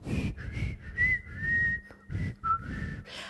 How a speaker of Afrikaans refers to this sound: Langs die grondpad fluit blaas Japie.